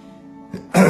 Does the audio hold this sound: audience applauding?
no